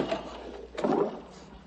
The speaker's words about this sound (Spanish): Mario se marcha y Rocío cierra la puerta.